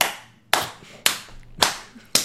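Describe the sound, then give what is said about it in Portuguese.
Five sharp hand claps at a steady, fairly slow pace, about one every half second, each crisp and loud with a brief ringing tail, and no talking. “Palmas em 2 FPS.”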